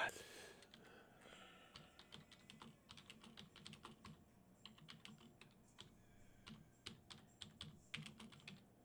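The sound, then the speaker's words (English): Rapid, irregular clicking of keys on a computer keyboard, fairly quiet, with uneven bursts of keystrokes continuing steadily for several seconds over a low background hum. “I'm not typing up there, I'm typing down here.”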